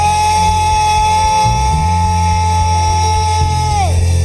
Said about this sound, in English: Stand to your feet, somebody, and give the Lord and the loudest shout you're giving this Christmas. Come on, clap your hands and give the Lord a shout. Yeah!